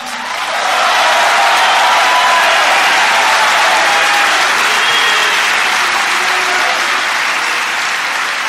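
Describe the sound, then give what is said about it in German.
An audience of members applauds steadily for minutes to welcome an arriving person, a dense, continuous wash of clapping that swells in after a moment and holds at full strength throughout, with no voices standing out. “Dann komme ich da rein und die Leute feiern mich minutenlang.”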